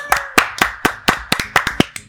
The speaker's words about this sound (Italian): Questa è la prima novità di oggi. Non c'è Matteo Virgili, un applauso!